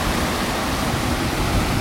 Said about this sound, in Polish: Nie wiesz? To śluza jest. Spiętrza rzekę, żeby było wyżej z jednej strony. Ale hałas, co?